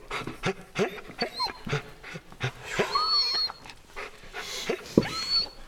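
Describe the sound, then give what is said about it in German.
A dog pants in quick, rhythmic breaths, with thin high whimpers and squeaks slipping in between the gasps throughout. “Wolfi! Du machst den Hund ja noch völlig verrückt.”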